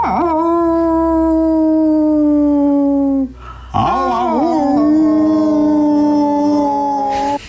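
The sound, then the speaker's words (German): Wolves howl loudly: a long, steady howl holds for about three seconds, then after a brief gap a second, wavering howl rises and falls with layered voices, no talking. “Äh, es ist nichts Geringes, es ist natürlich der Wolf.”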